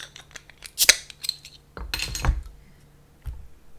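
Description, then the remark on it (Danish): An Oktoberfest beer bottle with a lion on its label being opened: a few small metallic clicks and scrapes, a sharp crack, then a brief, bright burst of noise as the cap comes off, with no talking. “Så øh, jeg vil gøre som løven og åbne kalorius.”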